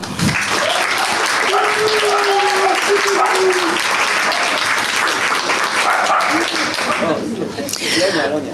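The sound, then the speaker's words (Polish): An audience at Big Book Cafe in Warsaw applauds steadily and loudly for several seconds to welcome poet, writer and reporter Agata Tuszyńska, a dense wash of clapping with some voices and a few cheers mixed in, tapering slightly toward the end. “Wielkie brawa.”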